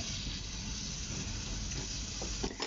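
food sizzling

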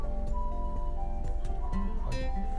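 ambulance siren passing outside

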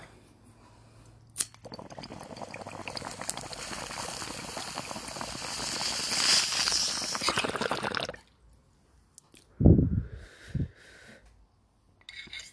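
bong water bubbling

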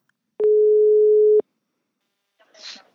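telephone ringing tone

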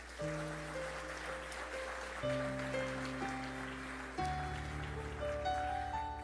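audience applauding

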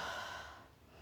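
heavy breathing

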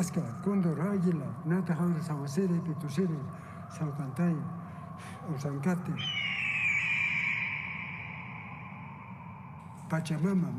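eagle cry

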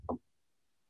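sneeze

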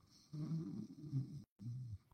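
person snoring

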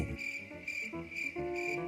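cricket chirping

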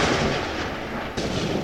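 thunder

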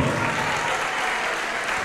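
audience applauding

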